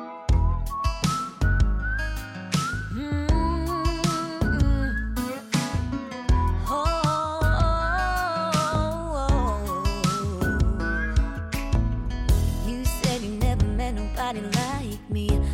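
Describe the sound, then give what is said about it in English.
A country song opens with a bright, clear whistled melody riding over strummed guitar and a steady band groove, loud and up front with no singing yet. “and so i'm so grateful that they they let me record it it's such a great song.”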